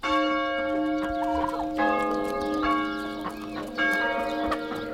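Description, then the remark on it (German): A rooster crows with loud, ragged calls while church bells ring steadily in the background, their sustained tones overlapping for several seconds. No one speaks. “Sie hat sich nach dem Hahnenschrei oder dem Läuten der Kirchenglocken gerichtet.”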